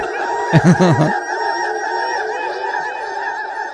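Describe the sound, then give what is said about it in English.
High, squeaky Ewok chatter: a louder, low guttural burst of jabbering up front, then a steady stream of warbling, bird-like babble that continues throughout, with no human speech. “The Ewoks just said Funk is having four dollar beers tonight.”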